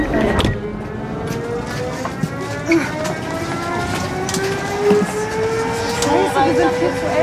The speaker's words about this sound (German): Sie quetschen sich durch den tschechischen Zug auf der Suche nach ihrem Abteil.